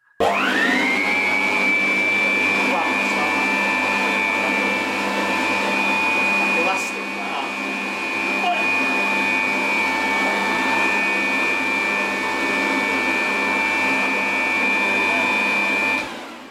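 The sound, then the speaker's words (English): An electric hand dryer whirs up and blows at a loud, steady roar with a high motor whine throughout, drowning out any nearby sound before cutting off. “hand dryer comes on, drowned out by hand dryer.”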